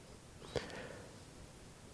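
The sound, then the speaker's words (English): A single quick, breathy whoosh made by a voice imitating an arrow shot from an archer's bow, brief and fairly quiet, with no talking around it. “An archer, one who uses his bow with an arrow to whoosh, hit the aim.”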